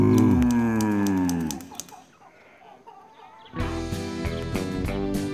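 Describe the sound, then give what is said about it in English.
A loud, drawn-out cow moo sounds over sharp typewriter clicks, the clacking carries on softly for a moment, then another full moo rises with the keys still tapping. “Click, clack, Moo. Click, clack. Moo. Clickety clack. Moo.”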